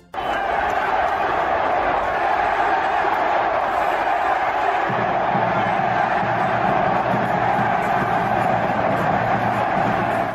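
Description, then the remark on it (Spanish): A dense stadium crowd at the clásico football match roars and chants continuously against Marcelo Micheleaño, a broad wall of many voices; about halfway through a deeper, rhythmic chant swells in, loud and sustained throughout. “Ah, Ayer, ayer, ayer, eh, bueno, ayer en el clásico, eh, la gente ya está harta de Marcelito, eh, gritaba.”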